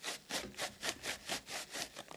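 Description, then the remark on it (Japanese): Paper tissue, used in place of toilet paper, being rubbed hard in a quick back-and-forth rhythm, about nine brisk scratchy strokes, fairly quiet, imitating the sound of a man vigorously wiping his bottom in a toilet. No voices. “はい、あのこれ今トイレットペーパーじゃないけどこの紙のティッシュを持ってきましたね。で彼がねそのお尻を拭く音がね こんな音なんかこんな音が聞こえたんですよこんな感じで僕はちょっと「えそんなに強く吹くの?」と思ってちょっとちょっとびっくりして”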